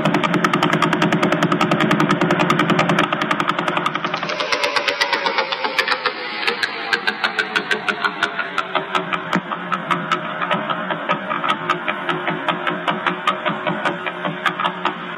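Slowed-down radio pulses from the Vela pulsar: a steady, rapid train of clicking thumps over a broad rumbling hiss, like a knocking engine. The beat stays loud and even throughout, with no talking.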